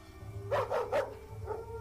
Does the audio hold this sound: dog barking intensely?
yes